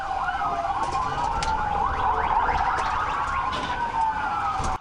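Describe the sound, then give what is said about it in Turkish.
Several police sirens wail at once, overlapping rising and falling tones sustained and loud throughout, with a steady road rumble underneath and no voices, as police cars chase suspects in a minivan along a highway from Oklahoma into Arkansas, USA. “Takibe daha fazla polis aracı katıldı.”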